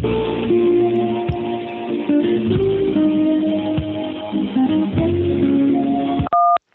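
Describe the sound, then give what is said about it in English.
Over a phone line calling the New Vision office outside Chicago, a stretch of muffled, tonal sound ends with a single short, clear touch-tone keypad beep, the kind heard when dialing an extension, after an automated prompt asks for the party's extension. “If you know your party's extension, Please enter it now.”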